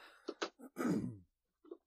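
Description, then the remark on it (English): Someone clears their throat because of something caught in it: a few short, harsh bursts build into one longer, rasping rumble, followed by a faint little grunt after a brief pause. “Sorry, I had something caught in my throat.”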